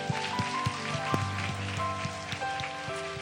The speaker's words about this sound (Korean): 모든 영광과 승리를 주신 하나님께 영광의 박수를 올려드립시다.